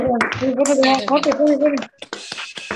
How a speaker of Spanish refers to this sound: Así que, por favor, ahora prendemos los micrófonos y padres, aplauso para los docentes. Y ahora, y ahora, los docentes, aplauso para los padres. Y ahora todos juntos aplaudimos a los chiquilines con todo el esfuerzo que vienen haciendo.